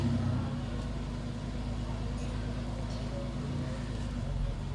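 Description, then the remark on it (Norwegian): An original Porsche 964 RS engine is started up and runs with a steady, deep idling rumble and an even low throb, staying loud and constant for the whole stretch with no voices over it. “En 92 mile 964 RS, som nå skal bytte plass med Jørn Jacobsens. Skal vi høre en starter opp.”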